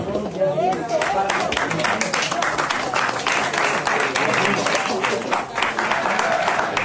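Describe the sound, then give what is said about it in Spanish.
An audience of Morena party members claps steadily for Rommel Pacheco for about seven seconds, a dense, even patter of many hands at a constant loud level, with a few voices murmuring and calling out beneath it. “pásale, Romel un aplauso.”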